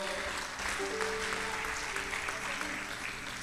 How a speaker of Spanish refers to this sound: Así que, ¿por qué no le damos un fuerte aplauso al Señor